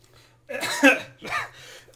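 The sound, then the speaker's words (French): Two harsh coughs, the first a longer raspy burst and the second shorter, sounding like someone clearing their throat while choking slightly, with a faint low hum beneath. “Excusez, je m'étouffe.”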